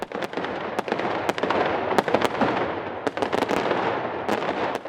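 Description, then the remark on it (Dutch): Rapid, irregular fireworks bangs crackle nonstop over a dense rumbling wash, sharp pops scattered throughout as if many rockets and firecrackers go off at once, with no voices, as the new year is celebrated on New Year's Eve. “Dan vieren we met oliebollen en vuurwerk dat er weer een nieuw jaar begint. Aftellen en knallen maar!”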